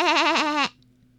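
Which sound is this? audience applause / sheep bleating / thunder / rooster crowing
sheep bleating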